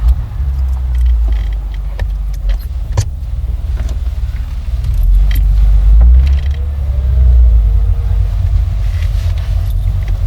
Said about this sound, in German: Dann setzte sich der Wagen in Bewegung.